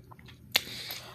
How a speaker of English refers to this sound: Hold on y'all. I'm biting my sandwich without trying to make a chewing sound because I don't want to be unprofessional.